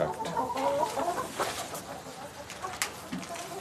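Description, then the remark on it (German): Hens cluck in a steady, busy chorus, with short bursts and occasional sharper calls rising over a dense barnyard background, at a Bavarian state farm where the hens are being assessed for plumage condition. “Also laut Bonitur sehen die Hühner sehr gut aus.”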